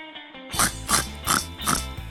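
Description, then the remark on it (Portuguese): Someone mimics a pig, letting out four rhythmic, snorting oinks about half a second apart, fairly loud over a steady low hum. “Porco, porco.”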